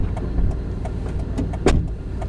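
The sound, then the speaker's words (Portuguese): Steady low rumble of a car interior while driving toward Olinda, Brazil, on a November afternoon in 2021, with small clicks and rattles and a brief louder knock partway through, no voices. “Já o episódio de hoje começa em um carro, a caminho de Olinda, numa tarde de novembro de 2021.”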